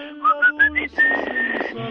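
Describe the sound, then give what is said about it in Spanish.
A bright whistled melody from a song in the Mexican film Nosotros los Pobres rises through four quick, separate notes, then holds a long sustained tone over a soft instrumental backing. No one speaks. “componer esta bonita canción y el chiflido que decía”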